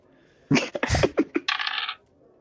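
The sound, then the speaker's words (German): Dice clatter across a hard tabletop in a quick burst of sharp knocks, then tumble and rattle for a moment before settling, rolled once more by a player. Fairly loud, with no one talking. “Du nimmst einen tiefen Zug und kannst gerne nochmal würfeln.”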